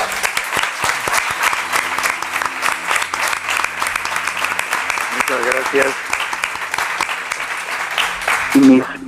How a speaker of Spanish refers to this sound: Pues este aplauso para ti porque te lo mereces.